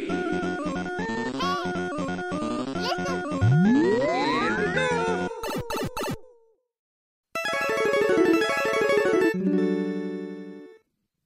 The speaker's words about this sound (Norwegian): Den lyden dere hører der, det er jo en eh, lyd som var synonymt med kvalitet for ja. oss som eh, vokste opp på 80- og 90-tallet. Det var introlyden til Capcom. Det mm. er synonymt med kvalitet.